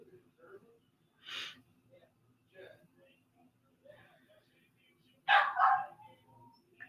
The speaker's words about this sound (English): Um, shut up, dog. Dang. Ignore him. He's being irritating.